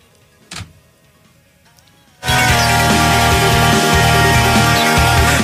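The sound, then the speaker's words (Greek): A door slams shut once with a short, solid thump as a woman leaves a meeting, and a couple of seconds later a loud, steady wash of sound takes over without any talking. “Εν τω μεταξύ, η πόρτα που ακούσατε είναι.”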